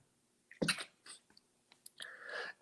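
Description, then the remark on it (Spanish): A single explosive sneeze with a sharp intake before it, followed by a quieter breathy exhale and sniff, with no talking. “Me dio el estornudo.”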